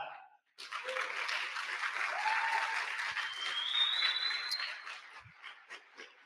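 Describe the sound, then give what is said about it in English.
An audience bursts into sustained applause for an event where about 20 people had Linux installed on their laptops, a dense wash of clapping that swells, holds steady for several seconds, then gradually thins out, with a few faint whoops mixed in. “Can we give a round of applause to that?”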